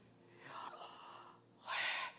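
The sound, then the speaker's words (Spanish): A person deliberately breathes out to show how pronouncing the name Yahweh is breathing: a long, soft, airy exhale followed by a shorter, louder, forceful breath. No talking. “Mire, y cuando uno lo pronuncia correctamente, Yahweh, uno está respirando.”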